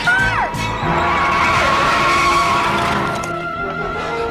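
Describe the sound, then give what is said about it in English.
A car skids loudly to a halt as it is getting dark, tires squealing in a long, high, wavering screech over a broad rumbling roar that fades slightly as it comes to a stop. “A car.”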